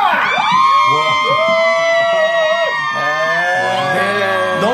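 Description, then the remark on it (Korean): A large outdoor crowd at a live event, standing in heavy rain under umbrellas, cheers and shouts together, a dense wall of overlapping voices with rising whoops, loud and sustained from start to finish. “밖에 반응을 직접. 그러니 이렇게 비가 많이 소리를 들어보시기 바랍니다. 여러분 소리 질러! 들리십니까?”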